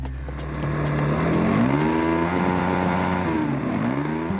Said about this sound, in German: Die bauen Rennautos und lassen die dann in unterschiedlichen Disziplinen gegeneinander antreten.